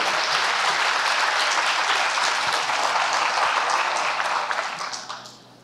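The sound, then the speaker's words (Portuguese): A large audience stands and applauds the carpenter of Nazareth in a dense, sustained roar of clapping that stays loud for several seconds before tapering off at the end. “Fique de pé e dê a maior salva de palmas a ele.”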